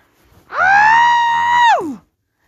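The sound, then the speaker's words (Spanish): A single loud scream muffled by a pillow pressed over the mouth, held steady for over a second before its pitch slides down and cuts off. “Tal vez no lo estás viendo visual y lo estás escuchando, pero te lo prometo, es exageradamente liberador gritar poniéndote algo en la boca.”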